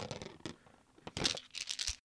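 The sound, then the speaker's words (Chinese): Newly bought spherical dice are rolled, tumbling and rattling in two bursts of crisp, scraping clatter with brief clicks between them, moderately loud, with no voices. “我先继续玩我这个新买的这个球形骰子， 好吧？”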